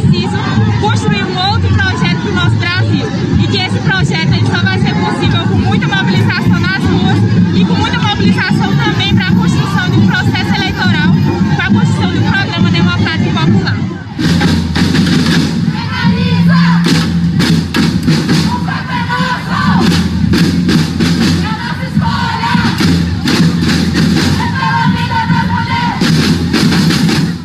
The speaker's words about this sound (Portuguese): Em Campinas, no interior paulista, as mulheres se manifestaram pela legalização do aborto no país. Além dos gritos de o corpo é nosso e pela vida das mulheres, elas também mandaram palavras de ordem contra o presidente Jair Bolsonaro.